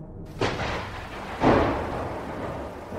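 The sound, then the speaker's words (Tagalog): Heavy rain hisses steadily at a jeepney loading stop while two sharp, rumbling thunderclaps break in close together, the second louder and rolling off slowly into the downpour. “Sa gitna ng malakas na ulan, sa sakayan ng jeep, ay nagulat ako nang maabutan ko pa”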